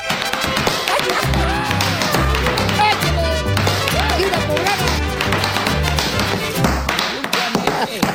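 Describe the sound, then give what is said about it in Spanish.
Boots tap-dancing on a floor: a fast, steady rattle of sharp heel and toe taps over a loud, rhythmic backing with a pulsing bass line, continuing throughout. “Esas botas sí bailan las desgraciadas.”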